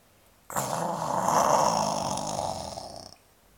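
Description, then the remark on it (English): A lion, lying in the sun on a hot day, snores once, a long, loud, rasping rumble held for about two and a half seconds, alone with no talking. “It was too hot to prowl, so the king of the jungle lay snoozing in the sun.”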